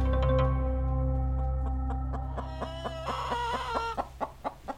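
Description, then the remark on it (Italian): Hens clucking in short, repeated bursts, growing busier and more insistent toward the end, over a low steady hum; fairly clear, with no voices. “Gratitudine si accontenta di quella corrisposta dagli animali, galline per l'esattezza.”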